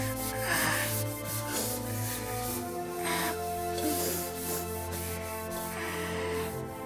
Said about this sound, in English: Scrub pots